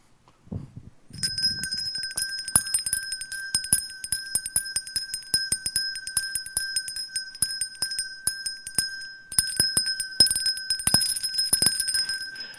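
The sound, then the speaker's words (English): A Salvation Army charity bell ringer's handbell rings steadily and continuously, its clapper striking in a quick, uneven rhythm that produces a bright, sustained metallic jangle. It is fairly loud, with no voices. “But here's what we do we hear the ringing, and we chuck a buck.”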